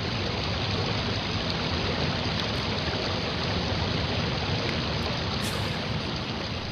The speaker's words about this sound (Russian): Я прибегну ко второму чуду. Если я прав, то пусть это подтвердит река. И в тот же миг раздался шум воды.